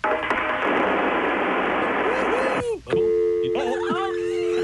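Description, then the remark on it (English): A loud, steady roar of a running clothes dryer with a cordless phone tumbling inside, heard as if through a phone line, cuts out into warbling electronic chirps and then a steady telephone signal tone. “We'd like you to take your cordless phone, go to the laundry machine, and put it inside your dryer.”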